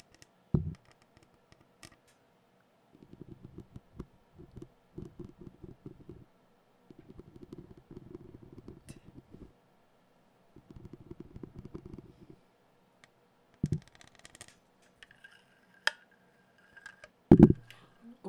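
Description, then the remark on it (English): Quiet ASMR-style noise triggers of a cup being scratched and tapped, coming in several short rustling bursts with pauses between, plus a few louder knocks near the start and end. “Do your cup thing, and then we'll end with a goodbye after the cup thing.”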